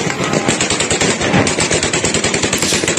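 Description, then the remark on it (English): Sound effects of automatic gunfire in a news report on fighting between rival Shiite factions in Baghdad's Green Zone: rapid bursts rattle continuously for about three seconds, loud and dense, with sharp repeated cracks over a noisy, crackling background. “It's probably better as a visual report, but I do I do like the sound effects the sound effects are great.”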